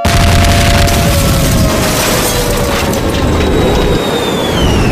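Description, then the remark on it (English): A loud, sustained explosive boom rolls on as a dense rumble for several seconds, while thin whistling tones slide downward overhead, like an airstrike sound effect. “The mother of all airstrikes! Eagle first strike, you have permission to engage the target.”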